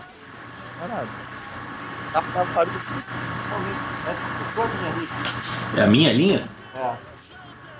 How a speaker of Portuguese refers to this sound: Ué, manda, manda, o caminhão do lixo passar mais tarde aí, irmão.